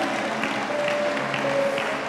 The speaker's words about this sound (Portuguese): Aplauda o Senhor, aplauda Ele.